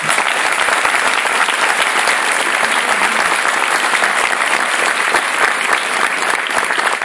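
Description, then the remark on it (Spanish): Loud, sustained applause from an audience for members of their group who earned a new pin this month, a dense wash of many hands clapping steadily for about seven seconds with no talking over it. “Realmente son personas que están rompiendo barreras, rompiendo conceptos, y han conseguido un nuevo pin este mes, estamos muy contentos, y me gustaría que le diéramos un fuerte aplauso para ellos.”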